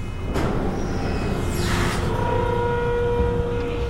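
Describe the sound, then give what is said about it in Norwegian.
A very large cargo ship's massive loading ramp lowers, a process taking 20 minutes, with a steady, heavy mechanical rumble, a faint whining hum and a brief metallic screech partway through, continuous and fairly loud with no voices. “Taiko begynner nå å senke ned den enorme lastelemmen sin.”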